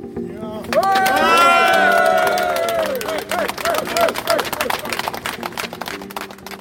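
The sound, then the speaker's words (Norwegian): A crowd of striking construction workers outside the government quarter yells together in a loud, sustained chant demanding more money, then breaks into scattered shouts over a steady rumble of background noise. “Utenfor regjeringskvartalet står bygningsarbeidere og roper om mer penger.”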